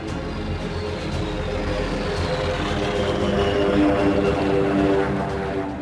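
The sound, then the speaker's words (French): Enemy propeller aircraft fly over a military column, their engine hum loud and continuous with harmonic tones that shift slightly in pitch as they pass. No voices are present. “Nous avons été survolés par quelques avions ennemis sans avoir été bombardés.”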